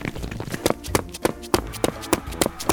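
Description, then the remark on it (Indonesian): Quick running footsteps of someone running away pound in a steady, rapid rhythm, each impact sharp, with a slight scuffing between strides and no talking over them. “eh jangan lari kamu lo gak akan bisa lari”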